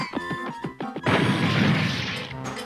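In a shop, a chameleon's cage is accidentally knocked over and topples, crashing to the floor with a loud, clattering smash that rings on for over a second, preceded by a few short, tonal knocks; the cage then rolls out the door.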